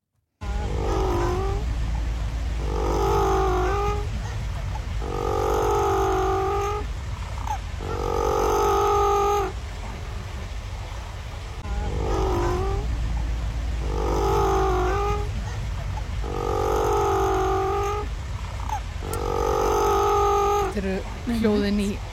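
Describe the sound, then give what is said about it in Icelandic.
A penguin named Dóra, at the National Aquarium of New Zealand, calls over and over in loud, braying bursts, about seven harsh honking phrases in a steady rhythm, with a constant low rumble underneath. “en við getum kannski hirt heyrt eh, öllítið hljóðið í henni Dóra, mörgjæs ásins í fyrra.”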